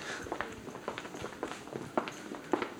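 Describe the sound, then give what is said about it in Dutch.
Steady footsteps walk through a shop toward the face sponges at an even pace, a handful of soft steps over a low hum of indoor shop ambience, with no one speaking. “Nou, we lopen even naar de gezichtsponsjes.”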